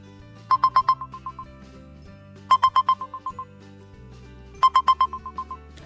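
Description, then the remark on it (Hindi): An alarm set for 5:30 a.m. rings in three identical bursts, each a quick series of bright electronic beeps that start loud and fade, separated by short pauses over a low steady background hum. No one speaks. “बेटा उठो देखो तुम्हारा अलार्म बज गया”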